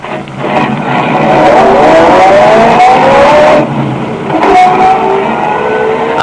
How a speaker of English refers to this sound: got in my car and drove down to Walnut Street.